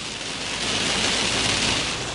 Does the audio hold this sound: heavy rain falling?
yes